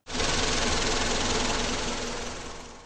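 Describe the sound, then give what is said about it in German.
The engine of Professor Weismacher's research vehicle (Forschermobil), driving along a small path, hums steadily with a rapid, rattling chug, loud and constant for about three seconds before easing off slightly at the end. No voices. “Professor Weismacher und sein Assistent Hundling schnuten mit dem Forschermobil einen kleinen Weg entlang.”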